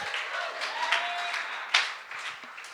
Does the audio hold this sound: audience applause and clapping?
yes